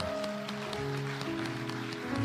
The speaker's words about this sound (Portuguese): E pela vida de tantos que aqui por lá, por pregação, por cuidar de criança, por não sei o que fazem por você, aplaude a Deus pela vida deles agora.